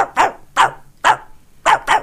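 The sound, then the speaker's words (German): A voice imitates the speaker's own dog barking, giving five sharp woofs in an uneven rhythm, the last two in quick succession, with no other talk around them. “Mein Hund bellt so.”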